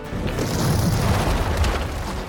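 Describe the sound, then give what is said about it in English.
A heavy impact from Skarn stomping his foot on the ground rolls into a deep, sustained rumble as the ground quakes and breaks apart, loud and steady for a couple of seconds with crackling debris on top and no voices. “Skarn stomped his foot on the ground, causing it to quake and break apart.”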